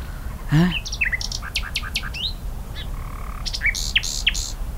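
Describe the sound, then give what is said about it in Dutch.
A nightingale sings in a dune woodland, loud and varied: sharp whistled notes, quick chirps and a rapid trill in short bursts, with a steady low rumble underneath and no talking. “Echt, ik zou graag uit volle borst kunnen zingen zoals een nachtegaal.”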